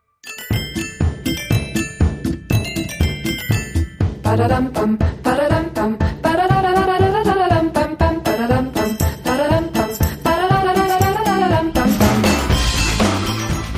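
An upbeat pop song plays loud and steady, with a bright melodic line over a driving rhythmic beat, and the music fills the whole stretch without any talking.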